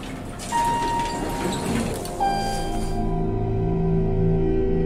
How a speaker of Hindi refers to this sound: lift basement पहुंची दरवाजा खुला